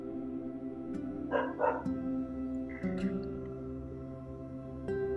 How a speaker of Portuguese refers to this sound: Por mais que você saiba do seu propósito, por mais que você tenha clareza do seu caminho, há uma série de interferências. Como o latido do cão durante uma gravação de meditação.